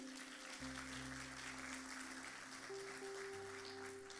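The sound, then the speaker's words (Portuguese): An audience applauds the Lord in a steady, dense wash of clapping that fills the whole clip, with sustained low organ or keyboard chords shifting underneath. “Você pode aplaudir ao Senhor por conta disso?”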